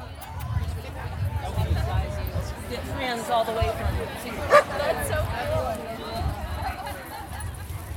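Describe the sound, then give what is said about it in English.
Dogs, including corgis, huskies, dachshunds, bulldogs and mutts, bark and yip amid a busy outdoor crowd at a dog event, with one sharp, loud bark standing out partway through over steady murmuring voices and general hubbub. “Many dog owners brought huskies, dachshunds, bulldogs, and mutts to come socialize with people and dogs alike, some of them for the first time since the pandemic started in March 2020.”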